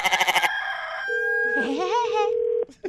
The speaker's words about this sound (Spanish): Oiga, me hace favor de callar los gallos porque no dejan dormir.